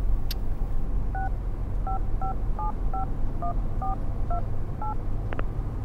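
A phone number is dialed on a keypad: about nine short, clear beeping tones tapped at an uneven pace over a steady low rumble, with a faint click before and after.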